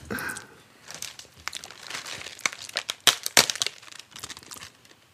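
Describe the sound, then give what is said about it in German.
Crinkling of a plastic wrapper, a steady stream of sharp, irregular rustles and crackles that peak in a few louder crunches near the end, with no one talking. “Ihr hört es rascheln.”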